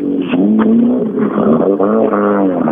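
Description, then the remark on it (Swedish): A car engine revs hard under acceleration during a race, its loud harmonic drone rising and dipping, broken by a few sharp bangs from the transmission. No one speaks. “Ja, det smäller bra i transmission.”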